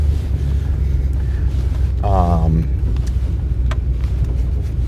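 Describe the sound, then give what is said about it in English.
Steady low road rumble and wind noise from inside a moving truck fill the whole clip, loud and unbroken, with a man briefly murmuring a hesitant sound midway. “We are back in the truck. Let's hit it.”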